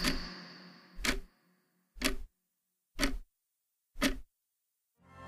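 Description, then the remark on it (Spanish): A clock ticks steadily in a grandfather's house, one sharp click about every second, each tick standing out clearly against silence in between; five ticks in a slow, even rhythm, fairly distinct. “Entonces el tic-tac, el silencio, las respiraciones profundas del abuelo, el viento corriendo por las ventanas los ecos pronunciados que se hacían dentro de la casa por los sonidos lejanos.”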